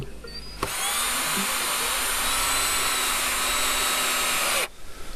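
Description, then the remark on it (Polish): A cordless drill whirs steadily for about four seconds at a high, constant pitch, starting and stopping abruptly, as the village mayor and schoolchildren fix a small plaque to a wooden gate of the rampart, with quiet background noise before and after and no talking. “Z wiatakom przyprawi wiesnanostka Madlen Renčova zromadnie ze šuleremi tafliczku na drewene wrótka wałki.”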